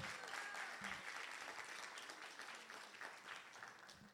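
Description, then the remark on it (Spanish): An audience applauds together for Jesus, a dense, sustained wash of clapping hands lasting several seconds, slowly tapering off toward the end. “Vamos a dar un aplauso fuerte a Jesús.”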